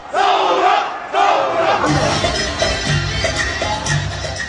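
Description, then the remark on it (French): A large protest crowd in Lebanon chants slogans in unison against the political class and the banking system, set off by a government plan to tax the WhatsApp app. Loud, with rhythmic shouted phrases repeating over a dense wall of voices. “Provoqués par la volonté du gouvernement d'imposer une taxe sur l'application WhatsApp, les premières marches ont immédiatement dirigé leur slogan contre la classe politique et le système bancaire.”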